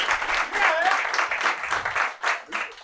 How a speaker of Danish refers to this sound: Det er sådan en lille trick, man laver for lige at bevise, at der er nogen, der er dukket op. Ja. Ja. Ellers så lægger man selv øh, klaplydene ind.